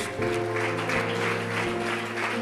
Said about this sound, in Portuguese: Vamos dar uma salva de palmas ao nosso Deus?